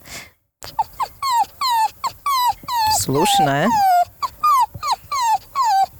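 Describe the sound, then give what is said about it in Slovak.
A person imitates a whimpering dog: a rapid string of short, high, whiny cries with a longer, louder wavering whine in the middle. A brief spoken word precedes it. “Viem aj kňučať ako pes.”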